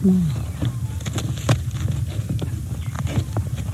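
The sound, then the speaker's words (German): Ripper, a male duck, imitates a slammed door to lure female ducks, producing a string of sharp, irregular thuds and knocks, roughly half a second apart, over a low rumbling background, with a brief low wavering call at the start. “Ripper macht dann eine zugeschlagene Tür nach.”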